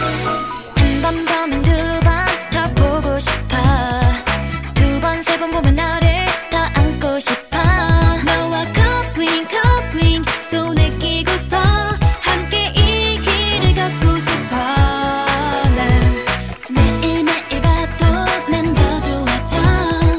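A bright, upbeat K-pop girl group song plays loud and close, with a steady dance beat and layered vocals and synths running continuously for the whole stretch, no talking over it.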